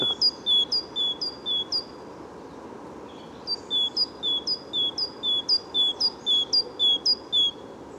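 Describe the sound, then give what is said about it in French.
A bird perched high in a tree in the first rays of sunlight sings a monotone song of identical high, clear notes repeated in a steady rhythm, two bursts separated by a brief pause, ringing out over a quiet forest background. “Un chant assez monotone mais très joli hein, dans, dans la forêt. Ça retentit très très bien, on l'entend de très loin.”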